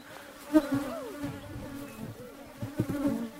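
Agitated bees, stirred up at a beehive fence, buzz in a dense droning hum, individual insects swelling louder as they pass, continuous throughout with no voices.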